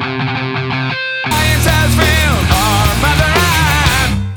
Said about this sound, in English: this is … …, a short song, unusually clean for them